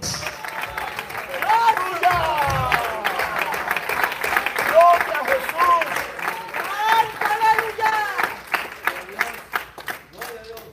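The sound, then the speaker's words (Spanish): An audience applauds steadily for about ten seconds during a church service, a dense, continuous wash of clapping with raised voices and shouts mixed in, fairly loud throughout. “¿Cuántos alaban la gloria de Jehová? El fuego de Dios. Voy a aplaudir por algunos que le comieron las manos los perros.”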